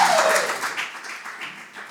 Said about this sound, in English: And another round for applause for our other amazing performers tonight